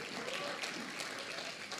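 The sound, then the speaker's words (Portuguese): An audience applauds the Lord in a steady, dense wash of clapping that holds at an even level for about two seconds, with a faint murmur of voices mixed underneath. “Pode sentar, aplauda ao Senhor.”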